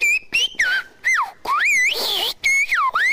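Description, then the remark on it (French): Shepherds' whistled language, used in the mountains: a run of loud human whistles imitating birdsong, with sweeping, birdlike pitch glides, rising and falling in quick separate phrases with short gaps, and no talking. “Il ne s'agit pas d'oiseaux, mais de la langue sifflée des bergers”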